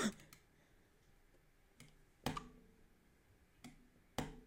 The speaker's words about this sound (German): Ja, ähm, ich hoffe, euch hat die kleine ähm, Klickfolge, sage ich mal, gefallen. Ähm, ich habe es versucht ein bisschen.